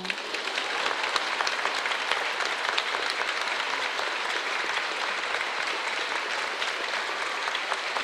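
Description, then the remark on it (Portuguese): Sustained applause from an audience, a dense, steady patter of many hands clapping at an even loudness for about eight seconds with no voices standing out. “Mais palmas, bem bonito!”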